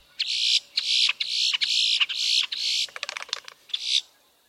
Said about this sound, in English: Red winged blackbirds flash crimson epaulets as they sing, and boat tailed grackles offer their own rough music.